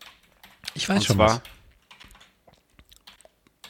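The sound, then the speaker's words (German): A person speaks briefly, then typing on a computer keyboard follows: a quick, irregular run of light key clicks that continues to the end. “Ich habe getippt und zwar einfach nur für mich nochmal.”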